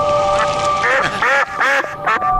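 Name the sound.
duck quacking sound effect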